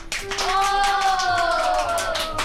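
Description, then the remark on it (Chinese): A group of children clap together in a classroom, producing a steady burst of rapid, overlapping claps for a couple of seconds, with a faint high voice rising over the applause. “来为自己和同学们鼓鼓掌吧。”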